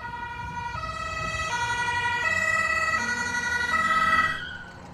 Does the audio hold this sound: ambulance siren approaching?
yes